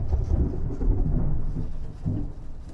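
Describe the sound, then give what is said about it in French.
A thunderstorm breaking out at three in the afternoon on 26 August: deep thunder rolls and rumbles continuously over a steady hiss of heavy rain, with a fresh swell of rumbling near the end. No voices, just the storm, loud. “Il faut dire que l'après-midi du 26 août, l'armée du roi de France débouche de la route d'Abbeville en désordre, il est 3 heures de l'après-midi lorsqu'éclate un orage.”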